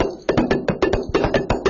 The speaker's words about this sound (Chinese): 像这个空调配音室呢，配什么呢？我们说这个，呃，除了人声以外的，像这个马蹄声，嗯，